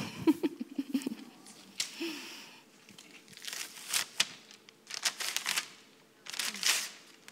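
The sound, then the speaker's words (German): Two glued-together sheets of paper being slowly pulled apart, with bursts of crackling, ripping noise coming in uneven spurts, mixed with faint crinkling and handling sounds. “Wenn du jetzt das Blatt Papier wieder trennst oder die Beziehung auseinandergeht ja, und ihr euch trennt, dann geht das einfach nicht, ohne dass es zerstört wird.”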